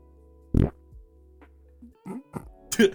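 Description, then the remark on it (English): A voice makes a fart noise with the throat: a loud, raspy low burst, then several shorter guttural croaks after brief pauses, without speech. “Yeah, it's pretty, it's pretty fucking good fart noise, dude.”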